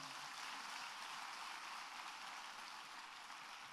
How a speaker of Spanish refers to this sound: Dale un fuerte aplauso al Señor.